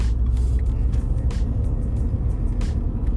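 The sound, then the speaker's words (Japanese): Dense road traffic on a rainy morning in the 7 o'clock hour rumbles steadily, with repeated hissing swells as vehicles pass one after another, loud and continuous with no voices. “えー、ねまあ、雨の朝となるとねやっぱ交通量も増えたりしてですね結構の車の量なんですけど”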